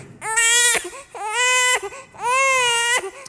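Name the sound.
baby crying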